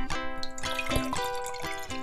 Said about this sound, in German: gießt sich noch ein bisschen von ihrem ekligen Warte, Apfelwasser ein. Hier noch ein bisschen ASMR für euch.